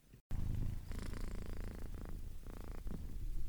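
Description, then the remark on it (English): A fluffy Persian cat purrs steadily, a low rumbling vibration with a rhythmic rise and fall of breaths, continuing after a brief cut at the start. No one speaks. “Kachu, my fluffy Persian cat, is gracing us with his presence while I do so”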